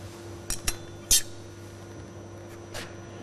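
Metal clinking as a water supply technician opens a compressor cylinder head to fix a typical fault: a few sharp metallic taps and clanks, one brighter clink around the middle, over a steady low mechanical hum.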